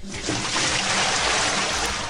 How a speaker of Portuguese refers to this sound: Primeiro, um balde de água fria para você.